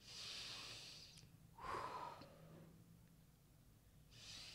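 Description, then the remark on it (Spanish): Several deep, airy breaths as a deep-breathing relaxation exercise: a long hissing exhale, then a forceful, slightly nasal blow of air that fades out, with another breath starting at the end. “El siguiente, técnicas de relajación, como la meditación, la respiración profunda.”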